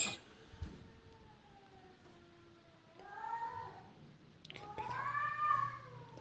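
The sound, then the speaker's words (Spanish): A cat meows in drawn-out, wavering calls, first a long sliding cry, then two shorter, louder yowls close together, fairly quiet against a faint background hum. “Hasta ahora los gatos.”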